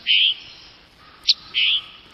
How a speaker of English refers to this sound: Other birds, like this tanager, have adapted within the same species. The tanager on the east coast of the United States, where the forests are a little denser, has one kind of call